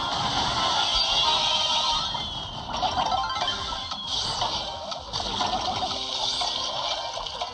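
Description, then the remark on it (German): Steady watery splashing of a video game character walking over water, forming a continuous bright wash with a few sharper splashes standing out, fairly loud, with no talking. “Ich finde das echt ungewohnt, über Wasser laufen zu können, ist aber klar.”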